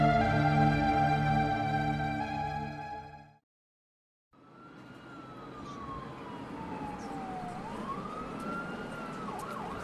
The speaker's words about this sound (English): High rise buildings line the street, First responder sirens can be heard in the distance.